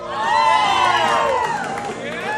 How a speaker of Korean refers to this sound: 신랑 신부가 멋진 춤을 선보이자 사람들이 환호를 보내는데요.